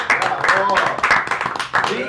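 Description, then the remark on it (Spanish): Brief applause for the invited guests present on the program, with scattered claps and excited cheering voices mixed in, fairly loud and steady for about two seconds before briefly dipping near the end. “Un aplauso para los invitados que tengo acá presentes.”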